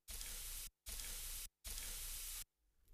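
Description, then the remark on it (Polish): Loud hiss of running water comes in three steady bursts, each cut off by a short silence, before fading to quiet. No voices. “To po prostu leci woda ale równie dobrze to może być inny dźwięk”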